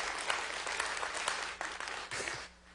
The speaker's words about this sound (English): He helped us get all this back up and running, and now we're on Facebook. It's awesome. Really appreciate it. Yeah, give, give a round of applause.